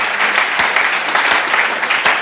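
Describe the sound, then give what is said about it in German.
Steady applause from an audience for people who did work on the building in recent days and weeks, a dense wash of many hands clapping at an even loudness throughout, with no voices standing out. “Gib mal einen Applaus oder was.”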